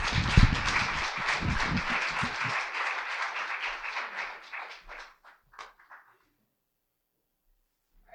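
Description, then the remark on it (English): An audience at Oak Church applauds a guest speaker invited back, in a dense, steady burst of many hands clapping, holding strong for several seconds before thinning into scattered claps and fading out to silence. “So it, give give her a round of applause as as we invite her back.”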